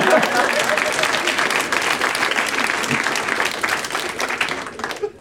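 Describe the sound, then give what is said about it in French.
A crowd breaks into sustained applause, many hands clapping in a dense, steady wash that stays loud for several seconds before thinning slightly at the end. “Ah, on peut leur donner une bonne main d'applaudissement, je pense.”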